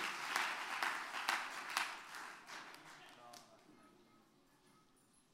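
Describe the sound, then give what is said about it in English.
A seated audience claps hands together after a prayer in a dense, steady patter of applause, with a few sharper claps standing out, then the clapping thins and fades out over the final seconds. “You may clap your hands, amen, as, you, as you're seated.”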